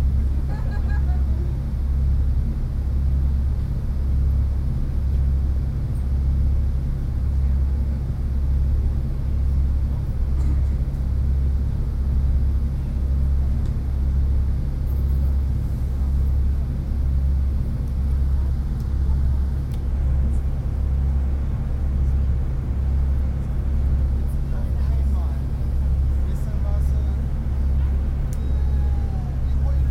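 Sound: ferry engine rumble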